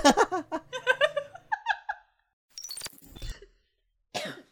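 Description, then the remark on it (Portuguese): Rhythmic, breathy laughter opens, then trails into a few harsh coughs, the last one short and isolated after a brief pause. “Eu tô tossindo muito, eu tô falando muito aqui.”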